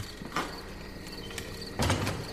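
A yard door of a house is pushed open with a short scrape near the start, then a heavier thud and rattle of the door swinging, over a faint background hum with insects chirping outside.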